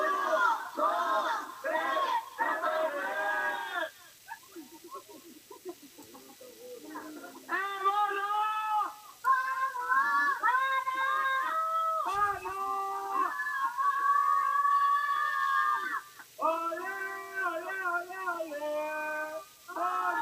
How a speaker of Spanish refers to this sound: Yo sé que la gente sí lo va a escuchar, pero esta es la mancha afuera del, afuera del hotel, ¿ah? gritando.